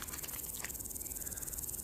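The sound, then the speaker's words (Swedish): Crickets chirp steadily in a continuous, rapid high-pitched pulsing, evenly spread across the whole stretch, in a large field beside a river running through a village at dusk, with no voices present. “När man blir gammal då kan man inte höra syrsorna längre.”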